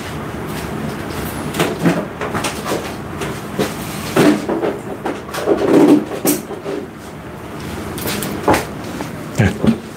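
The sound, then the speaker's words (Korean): Clunks, knocks and plastic rattles as an electric fan is set up and switched on indoors, with a steady low whirring noise running underneath the irregular handling sounds. No one speaks. “소음이 약간 나지만 선풍기를 틀었습니다.”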